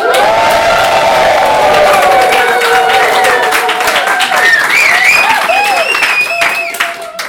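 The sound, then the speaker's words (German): A large audience applauds and cheers loudly, dense clapping mixed with whoops and high shouts that ring out before the noise begins to fade at the end. “ich bin nicht allein hier. Lass mal was hören.”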